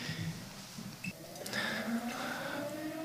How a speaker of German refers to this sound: Vielleicht war ah, die Sirene. Sirene. Ja, es ist mittags es in zwölf, äh, genau. in Österreich und das Lagerhaus hat geschlossen. Also, schließt gerade.